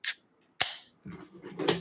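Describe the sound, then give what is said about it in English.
A cap is popped off a glass bottle: two sharp, bright metallic snaps about half a second apart, then a rough hissing fizz that swells briefly. No voices. “It's just popping off a nice, also nice bottle cap, glass bottles.”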